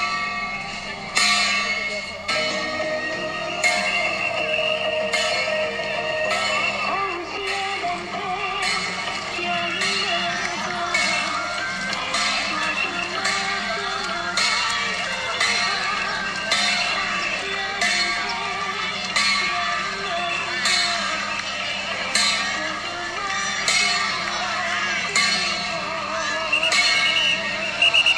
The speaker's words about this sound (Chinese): 现场收音制作 Podcast 其实具有高难度，除了人声鼎沸之外，打着节奏震天响的敲锣声，夹杂着持续不断维持秩序的哨音，展现出充满活力、热情奔放的景象。